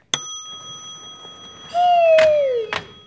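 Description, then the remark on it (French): A bright chime rings and fades, then a whirring slide with a falling pitch is capped by two solid thuds as the doors of an elevator in an office building close behind a woman. Clear, with no voices. “Elle rentra dans l'ascenseur, les portes se refermèrent.”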